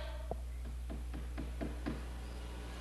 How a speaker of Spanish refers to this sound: tocando la puerta otra vez. Ahí otra vez están tocando.